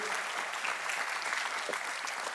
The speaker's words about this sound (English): Uh, I know you guys just clapped for them, but will you just, let's just give them an LFC welcome.